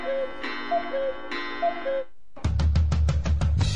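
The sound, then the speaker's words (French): A cuckoo clock sounds its two-note call twice over a droning tone, then a loud burst of rapid, rhythmic mechanical clacking takes over. No voices. “Qu'on sorte le coucou, qu'on le jette en l'air et qu'on le marave comme une piñata.”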